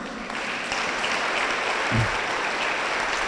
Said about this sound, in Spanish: Denle un aplauso al Señor.